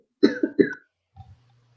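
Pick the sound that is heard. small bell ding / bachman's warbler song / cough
cough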